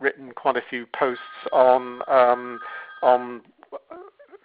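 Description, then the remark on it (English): The talking man's own mobile phone gives off a steady electronic ringtone lasting a couple of seconds, sounding quietly underneath him as he keeps talking over it. “Sorry, that's my phone.”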